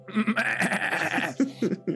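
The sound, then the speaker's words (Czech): A person's voice imitates a sheep, giving a wavering, nasal bleat that stretches for about a second and a half, then breaks into a few short bleating bursts. Fairly loud. “No, no, no, to je ovečka zase.”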